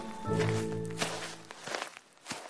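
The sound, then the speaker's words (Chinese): A short, humming musical tone opens, then a handful of soft footsteps of an old woman walking toward a haystack fall at an uneven pace, each a brief scuffing thud at moderate loudness, with no voices. “于是，老妇人向着草堆走去，拿了一把干草交给奶牛。”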